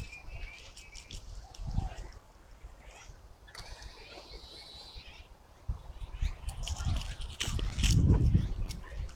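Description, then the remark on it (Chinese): A Eurasian blackbird sings short, fluty whistled phrases that come and go, fairly soft, over a steady background of low rustling and muffled thumps, in a dawn redwood grove during its courtship season. “最长，哎，你听，这就是乌冬。”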